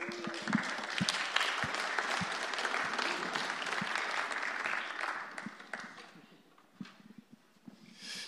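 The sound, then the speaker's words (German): An audience breaks into sustained applause for two helpers brought up with two houses, a dense wash of clapping that holds steady for several seconds, then thins out to a few scattered claps before stopping. “Gib jemand gerne einen Applaus.”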